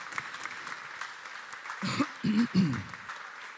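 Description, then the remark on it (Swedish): A church audience applauds during a Swedish service to welcome people into the fellowship, with steady, dense clapping throughout, and a few loud vocal bursts, like shouts or cheers, rise over the clapping midway before it carries on. “En stor, stor applåd till er och välkomna in i gemenskapen.”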